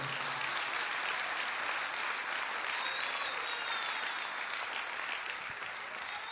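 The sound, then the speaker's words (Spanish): An audience applauds the Lord steadily, a dense wash of many hands clapping at once that holds at an even level for several seconds, with faint voices mixed into the crowd noise. “Dale un fuerte aplauso al Señor entonces.”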